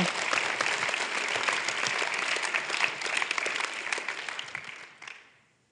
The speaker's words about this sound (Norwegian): Må gjerne klappe.